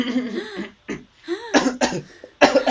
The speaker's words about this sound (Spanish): ¿Qué me pasó? Ay, como que escuchó la tos media rara